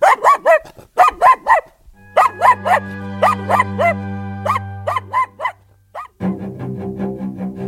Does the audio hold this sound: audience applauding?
no